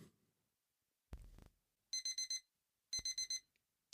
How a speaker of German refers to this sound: Du öffnest die Augen, du liegst in deinem kuschelig warmen Bett und hörst dieses wunderschöne Geräusch. Was machst du? Ich drücke auf äh, die äh, Snooze-Taste. Der Wecker geht aus